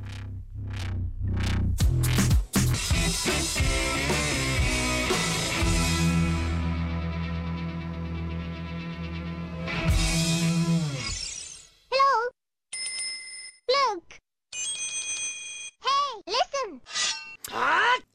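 A loud, dense remixed rock track played on the radio station Radio Revolt, with heavy bass and distorted layers, plays for about ten seconds, then breaks into glitchy, swooping electronic chirps and bleeps with short gaps between them.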